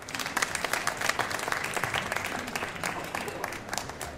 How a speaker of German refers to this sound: Das hat einen Applaus verdient, meine Damen und Herren.